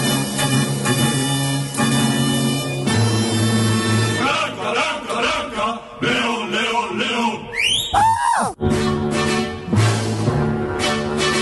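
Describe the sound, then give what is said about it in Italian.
A show's theme tune plays loudly on its own: layered melodic music with held, droning notes, changing chords, and a burst of rising and falling swooping tones partway through. “E allora la sigla di Marco Don Chisciotte”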